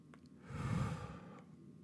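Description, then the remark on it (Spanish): A slow, deliberate deep breath drawn in as part of a breathing prayer, a soft airy rush swelling over about a second and then easing off, with no talking. “Sencillo, es Inhalamos.”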